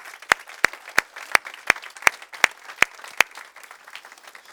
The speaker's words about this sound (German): Wir wollen euch mit einem kraftvollen Applaus willkommen heißen. Tun wir das bitte gemeinsam.